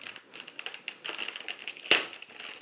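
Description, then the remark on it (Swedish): Wrapping paper and tape crinkle and tear as a well-wrapped gift package is unwrapped, a run of quick crackling rustles with one sharper rip near the end, no voices. “Jag, jag ska öppna nu då va?”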